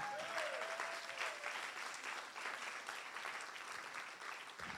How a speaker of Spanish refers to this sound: Si usted lo cree, denle un aplauso fuerte.